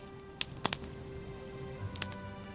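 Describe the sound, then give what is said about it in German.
A crackling campfire: a handful of sharp, irregular pops and snaps, some in quick pairs, over a soft steady background hum, with no one talking. “Oh, und ich stelle das Lagerfeuer noch etwas lauter, damit es schön kuschelig wird.”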